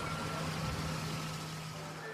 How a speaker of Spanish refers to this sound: Pero si está estacionando auto en el video.